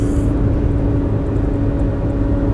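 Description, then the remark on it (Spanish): A steady low rumble of road noise inside a moving car, constant and fairly loud, with a faint engine hum and no voices. “De pronto después de este audio aquí en el carro manejando suceda algo grave, accidente”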